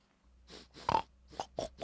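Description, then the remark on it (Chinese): A bristly pig grunts and snorts in a quick run of about five short, rough bursts, the middle one loudest, over a low steady hum with no talking. “一只浑身刚毛的油猪走出来，看到河马躺在桥上，说道。”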